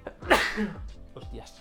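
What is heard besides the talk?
sneeze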